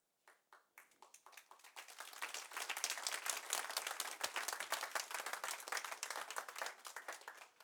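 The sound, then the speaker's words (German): A few scattered claps start things off, then quickly swell into dense, sustained applause from a crowd giving applause to Jesus, a steady crackling wash of many hands that holds strong before tapering slightly near the end. “Das nächste Mal, wenn es klatscht, bist bitte gescheit.”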